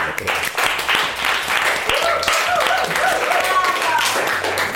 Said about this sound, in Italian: È un aforisma bellissimo, eh? Ma è molto bello, io gli farei un grande applauso.